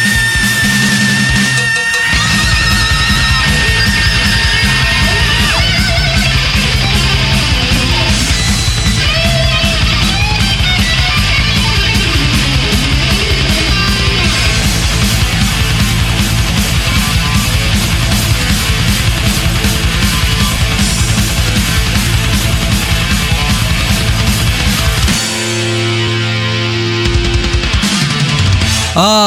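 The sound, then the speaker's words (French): A loud, fast 1984 thrash metal song by a band plays throughout, with dense distorted guitars and driving drums, briefly thinning out near the end before crashing back in. “…, écoutez-moi son school, c'est pas encore …, mais franchement ça va le faire, c'est ….”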